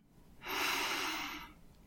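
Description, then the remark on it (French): A single long, deep breath drawn in through the nose during a guided breathing exercise, an airy rush that swells and fades over about a second, with no talking. “Observez le simple mouvement naturel de votre souffle. Inspiration.”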